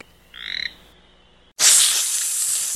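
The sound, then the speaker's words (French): A toad gives one short, buzzy croak against a quiet background, then a loud, steady hissing rush of noise takes over until the end. “Plus loin, un crapaud chasse des moustiques.”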